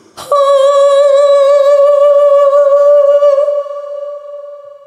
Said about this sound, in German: Aber okay. wir haben hier noch einen wunderbaren Hall. Ja, den kann man natürlich gebrauchen. Der ist cool.